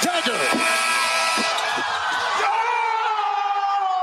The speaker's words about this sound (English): well, you hear the ball bouncing around the rim